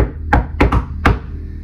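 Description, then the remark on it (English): Three sharp knocks on wood, the first two quickly together and the third after a longer pause, then the rhythm stops short and leaves the pattern hanging unfinished. “Uh, and and it might actually leave you, especially if you're OCD, it might actually leave you like, oh, that needs that needs the knock, you know, right?”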